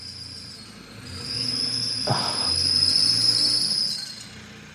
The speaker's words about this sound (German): Verdammt, ja, das Auto ist kaputt.